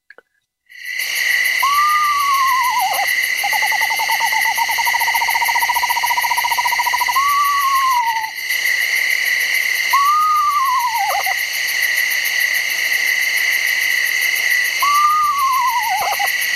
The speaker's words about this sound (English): i'll let you hear the screech owl and i'm going to also play the barred owl b-a-r-r-e-d i'll play that one second and that one makes some really strange sounds so here's the screech owl and a screech owl does not screech by the way right screech owl